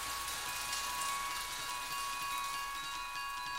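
Steady rain falls continuously, a dense hiss of drops spread evenly across the whole stretch with no pauses, moderately loud, and no voices present.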